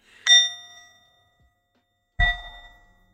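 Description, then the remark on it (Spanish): A bell rings twice, each strike a bright metallic ding with harmonics that ring out and slowly fade, the second hit carrying a heavier low thud; no one speaks. “Sonó de nuevo la campana.”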